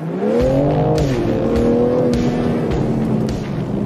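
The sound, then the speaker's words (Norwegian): A BMW M3 xDrive Competition, a four-wheel-drive sports car, revs loudly and continuously on the Vålebanen race track, its pitch rising and then holding as the car accelerates, with brief sharp gear-change breaks in the roar. “Det er en M3 X-Drive Competition vi sitter i nå.”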